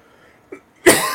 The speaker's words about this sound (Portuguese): podcast ao vivo, a gente tosse, gente, não tem corte.